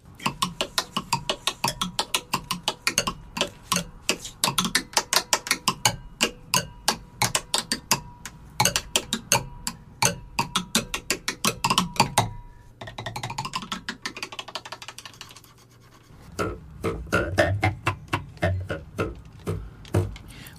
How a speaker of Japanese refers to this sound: で僕たちは今これ竹の割り箸を使っていますけども叩くマレットによって、まあ叩くバチですねによっていろんな音色が表現できます、はい、はい、箸だけでも面白い音が出るんですよね箸だけそうですかはい箸だけでも面白いんですよ